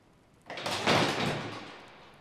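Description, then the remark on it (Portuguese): A man tries the handle of a locked door, jiggling and rattling it, a fairly loud burst of metallic clattering that swells quickly and then fades over a couple of seconds. “Ele tenta a primeira. Trancada também. Ele tenta a segunda.”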